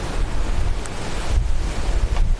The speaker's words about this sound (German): Und gerade die Inseln, die jetzt hier so nah am, am Hausriff sind, wo eine starke Wellenbewegung da ist, die werden dann ratzfatz abgetragen.